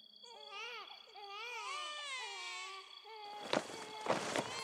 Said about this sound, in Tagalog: Naririnig ko na rin sila. Ano? Yung sinasabi mong iyak ng mga sanggol, naririnig ko na rin sila.